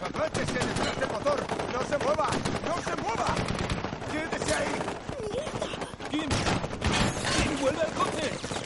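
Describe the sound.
Rapid, sustained gunfire crackles in dense bursts for the whole stretch, loud and sharp, while raised voices carry faintly underneath the shots.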